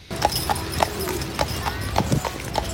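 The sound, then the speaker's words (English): Horse hooves clip-clop in a steady, even rhythm, about nine crisp hoofbeats over a few seconds, clear above a low background hum. “I really like that horse.”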